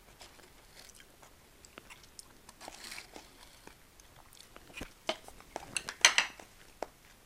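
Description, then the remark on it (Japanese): Someone eating instant cup ramen with freeze-dried toppings full of green onion: scattered clinks of utensils against a cup, soft slurps and chewing, with a few sharper clatters and a brief crunchy burst near the end. No one speaks. “この今日今食べてるラーメンはねこの火薬もちろんねインスタントっていうか、うん、即席麺だからさ火薬もその入ってたフリーズドライのやつなんですけどネギが超たくさん入ってる こんなにネギ入ってるカップ麺あんまり見たことないすげえネギいっぱい入ってる”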